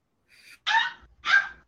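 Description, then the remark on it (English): A dog barks because her ball is stuck under the TV stand, in short, sharp bursts: a soft yip followed by two louder barks spaced about half a second apart, with no talking. “Is where all the barking is coming from.”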